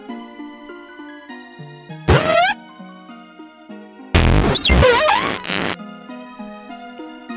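Two loud, raspy cries of the skunk-like Stunky Pokemon family from a video game, with squealing pitch sweeps, a short one followed by a longer one, over soft, steady electronic background music.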